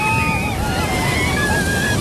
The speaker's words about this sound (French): Il y en a qui se sont fait bouger un peu. Ouais, hein. ah ouais, grosse vague, grosse charge ça bouge comme vous dites, mais heureusement toutes les vagues nous ramènent au bord et euh, beaucoup de sensations fortes du coup.